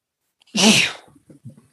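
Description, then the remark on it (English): A single loud sneeze bursts out with a sharp airy blast, then trails off into a few faint breathy murmurs. “Excuse me. Bless you.”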